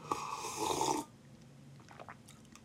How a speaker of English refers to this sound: Wait, guys, sip the coffee.